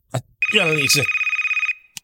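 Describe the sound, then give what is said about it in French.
A mobile phone rings with a steady electronic tone pulsing rapidly for over a second, fairly loud, while a voice talks over the start of it. “Il est croisé mon téléphone. Ah, oh, ça, ça arrive jamais en live!”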